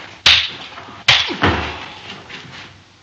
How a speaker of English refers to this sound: what uh, this the reaction of the audience to this pivotal scene where um, he's slapped in the face uh, by a white racist and he responds in kind.